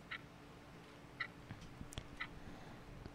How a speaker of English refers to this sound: Let me just whip up a clock ticking sound effect. Okay, this is Hot Seconds.